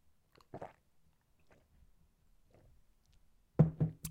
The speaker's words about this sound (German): Und ich sage einmal wieder Ja zu deutschem Wasser, weil ich trockenen Hals habe.